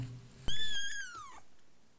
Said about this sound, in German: hörst du das komische Miauen? Es tönt so wie das kleine Babykätzchen, das wir vorher gesehen haben. Komm, wir gehen mal schauen. Es muss ganz in der Nähe sein.